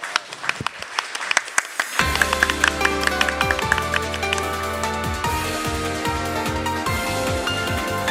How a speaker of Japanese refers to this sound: 皆さん大きな拍手をお願いいたします